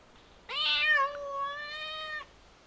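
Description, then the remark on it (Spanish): A single drawn-out meow from the cat Panchito Cabrera, clear, rising at the start and then holding a steady whining tone for nearly two seconds before stopping abruptly, with no other sounds around it. “¡Salude, gatito!”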